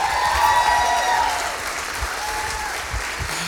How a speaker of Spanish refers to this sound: Vamos a darle un fuerte aplauso, un aplauso más fuerte a él.